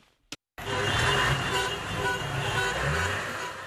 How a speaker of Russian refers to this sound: Гудки автомобилей, радостные выкрики, люди с национальными флагами, ликование на улицах Хартума не прекращается.